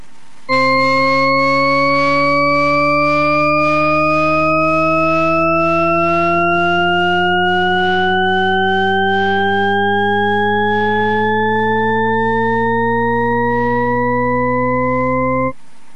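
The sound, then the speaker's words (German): A Shepard-style auditory illusion: a rich, organ-like tone scale glides steadily upward for about fifteen seconds yet ends lower than it began, loud and continuous, with no voices or other sounds alongside. “Äh, ich kann nämlich das invertieren, das heißt, was ich hier noch habe, ist eine Tonleiter, die geht rauf, das hört man. Und trotzdem ist sie am Ende tiefer, als sie begonnen hat.”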